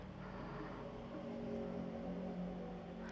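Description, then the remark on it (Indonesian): A motorcycle engine drones steadily as it passes by, a low muffled hum with a faint rising pitch, with no one speaking. “nih suara motor lagi ya”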